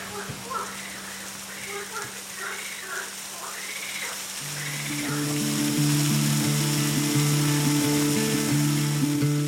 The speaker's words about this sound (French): Il apparaît une quantité de matière colossale qui tombe de haut de la falaise. L'arc-en-ciel se crée dans les gouttelettes d'eau en suspension dans l'air, donc on fabrique un arc-en-ciel. C'est la, la seule cascade de Marseille